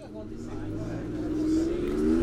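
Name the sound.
car engine running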